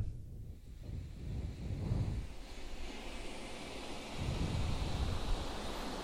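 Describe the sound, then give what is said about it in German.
Ocean surf rolls in as a steady, full rush of noise with a deep low rumble, swelling and easing in slow surges. No voices are heard. “Meeresrauschen.”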